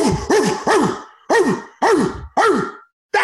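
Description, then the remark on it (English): A person imitates a dog barking, about seven loud, throaty woofs in quick uneven clusters with short pauses between, and no other talking. “started barking and roughing.”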